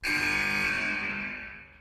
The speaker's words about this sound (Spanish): Justo en la bocina